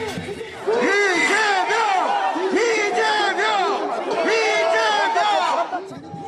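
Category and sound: crowd, crowd chanting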